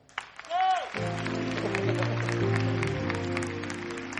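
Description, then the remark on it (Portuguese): A church audience claps steadily for several seconds, a dense, continuous patter of hands over sustained keyboard chords, preceded by a brief rising voice-like tone. “Ah, vamos aplaudir de novo, não é?”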